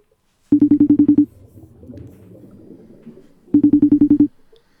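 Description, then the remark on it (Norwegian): A FaceTime video call ringtone chimes in a quick burst of about eight pulsing tones, pauses for a couple of seconds of low murmur, then repeats the same rapid pulsing pattern, loud. “Jeg tror jeg facetimer Jonas og Julie og hører hvordan det går.”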